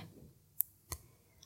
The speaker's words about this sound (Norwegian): Klokka tikker og går, og han venter tålmodig.